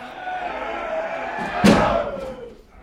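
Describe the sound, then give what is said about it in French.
A single heavy slam of a wooden beam against a carved, nail-studded oak door rings out near the end as people try to break it down, over a steady background of shouting crowd noise that fades afterward. “Regardez Ils apportent une poutre. Ils vont enfoncer la porte.”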